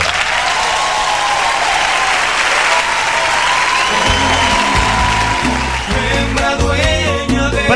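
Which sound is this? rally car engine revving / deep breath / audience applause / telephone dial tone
audience applause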